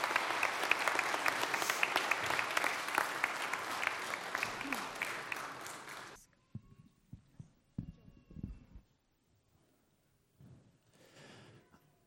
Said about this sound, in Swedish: Nu, ja, en applåd till våra skådisar.